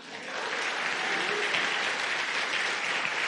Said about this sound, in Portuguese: Aplauda o Senhor por causa disso.